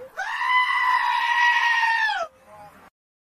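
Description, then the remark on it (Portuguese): A single loud, drawn-out goat bleat, steady and nasal for about two seconds before cutting off abruptly, followed by a brief fainter tail, with no talking. “solta o bode, bode pra.”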